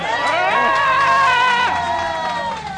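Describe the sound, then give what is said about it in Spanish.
A group of people in the COPE stand in Paris shouting and screaming together, loud, with overlapping high-pitched voices held steadily for a few seconds before easing slightly at the end. “Es que quitando la final de un mundial con ese hay un buen berrido, un buen berrido te quita los nervios.”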